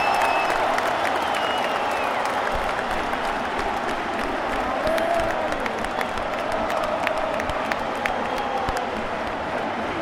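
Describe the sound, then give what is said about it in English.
A big football stadium crowd roars and applauds steadily as Porto move the ball at pace, a dense, continuous wall of cheering with scattered whistles and shouts rising above it. “Evanilson blocked off by Dimarco and finally Porto moving the ball at pace and what a difference it makes. Listen to this.”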